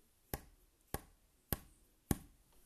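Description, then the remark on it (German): Four crisp, sharp taps of a finger on wood, imitating a clacking, ticking noise, evenly spaced about half a second apart, fairly loud against a quiet background with no talking. “Hat so angefangen, so ein Klacken, so ein Ticken, ähm, wie wenn du mit dem, warte, ich versuche das mal nachzumachen, wenn du mit dem Finger auf Holz haust, so.”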